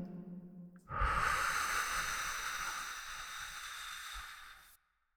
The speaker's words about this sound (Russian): И сделайте глубокий вдох через нос и выдох через рот. И еще один вдох через нос. И выдох через рот.